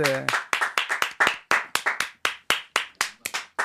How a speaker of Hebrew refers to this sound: כפיים